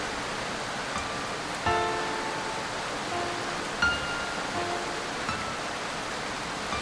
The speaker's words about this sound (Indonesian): Hujan turun deras dan merata di sepanjang Jakarta dan Jawa Barat. Bus itu kini telah mencapai Karawang, tempat yang jadi titik mula bagi puisi besar Khairil Anwar.